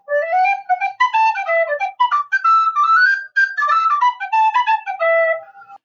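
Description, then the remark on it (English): A simple wooden whistle, basically a simpler recorder, plays a short, lively melody of quick stepping notes, bright and fairly loud, with breathy overtones and brief pauses between phrases. “it's basically a simpler recorder i'm looking it up right now i'm really interested let's see here it sounds it sounds let's see how badly the microphone mangles this”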